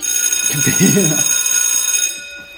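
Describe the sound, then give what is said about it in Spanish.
A small bell rings in a bright, shrill metallic shimmer that holds steady for about two seconds before cutting off, with a brief murmur of voices underneath. “Campanita.”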